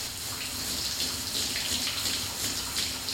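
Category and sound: household object, shower running water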